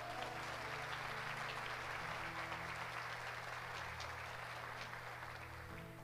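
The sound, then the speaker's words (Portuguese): A crowd applauds a young girl steadily, a dense wash of many hands clapping at constant loudness for several seconds, with a low steady hum running underneath. “Uma salva de palmas para ela, gente.”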